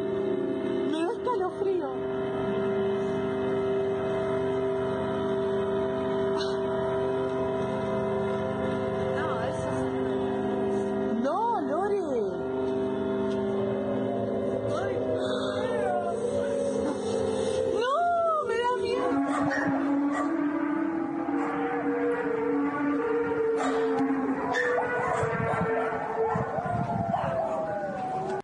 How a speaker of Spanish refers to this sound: Pero algo peculiar, algo más peculiar, pasó en Argentina, a inicios de cuarentena. Se em, comenzaron a escuchar sonidos en las calles del noche, como el sonar del paso de un avión, pero aún más raro y más fuerte.